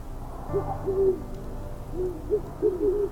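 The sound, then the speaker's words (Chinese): An owl hoots several times, a hunting call of low soft wavering calls at an uneven pace, standing alone over a quiet background hum with no one speaking. “是北方最为可怕的狩猎呼叫。那声音将冷月下孤寂的山谷、残阳下的江河湖泊和篝火营地展示于眼前。”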